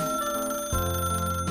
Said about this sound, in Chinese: 突然间，他爸爸的办公室电话响了。